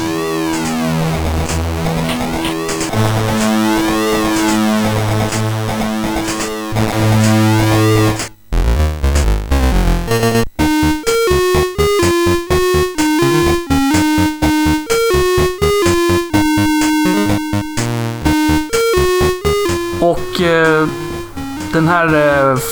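SID chip music: buzzy 8-bit chiptune with sweeping arpeggiated tones abruptly breaks off around eight seconds, then shifts into a choppy, funky bass-driven melody with rapid stabbing notes, loud with no voices.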